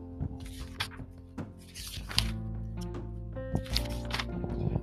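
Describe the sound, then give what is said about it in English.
Several crisp papery rustles as pages are turned, arriving in irregular bursts a second or so apart, fairly loud over a steady, tonal musical background hum. “Um, as you can hear, the page turning.”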